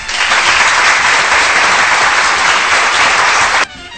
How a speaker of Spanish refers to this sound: Este aplauso es para ustedes porque una vez más hemos roto récord. Hemos roto récord de la estación, hemos roto mi propio récord. De verdad, este aplauso es para ustedes.